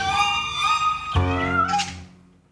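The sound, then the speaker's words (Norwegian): A cat meows loudly, a long drawn-out yowl followed by a second wavering cry that fades out toward the end. “Katta vår var gatens skrekk.”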